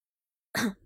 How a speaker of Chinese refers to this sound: 苏哲咳嗽一声，朗声说道。